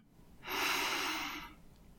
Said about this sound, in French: Observez le simple mouvement naturel de votre souffle. Inspiration.